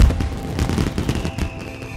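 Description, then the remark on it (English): Fireworks burst in the night sky in a rapid, continuous volley, with a steady run of loud booms and crackles rolling over a deep rumble. No one speaks. “As the fireworks explode in the night sky around you, the realization.”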